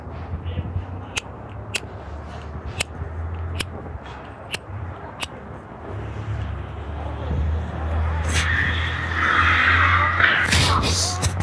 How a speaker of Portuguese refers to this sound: Oh, olha o vento, olha o vento, olha o vento.